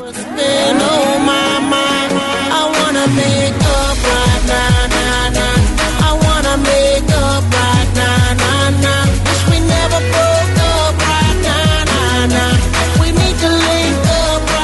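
A pop song plays loudly and steadily for the whole stretch, with a punchy beat, deep bass and layered melodic parts, and what sounds like a lead vocal riding on top.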